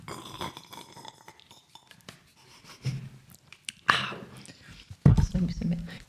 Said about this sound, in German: Ja, ja aber ich schlürfe zwischendurch mal Tee, dann kommt das gut ja, als Geräusch.